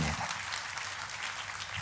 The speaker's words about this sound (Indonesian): Kita kasih tepuk tangannya pula yang paling meriah buat Tuhan